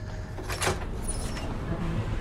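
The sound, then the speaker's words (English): A hotel room door opens with a short swishing, rattling burst, then fades into a steady low hum with no one speaking. “Well, I'm in the door.”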